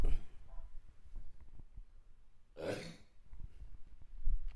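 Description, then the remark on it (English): A single short, fairly loud burp bursts out after a stretch of quiet low rumble and breathing noise, with no talking around it. “I got to burp one sec.”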